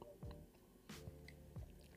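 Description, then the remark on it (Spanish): A single quick sip of espresso, a short slurp with faint mouth and swallowing sounds around it, otherwise quiet. “Voy a pegar un sorbito a mi expreso que hoy me ha quedado, hoy me ha quedado espectacular, te lo juro.”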